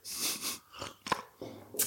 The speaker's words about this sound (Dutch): Dus ik denk, ik gun je even een slokje. En mezelf ook.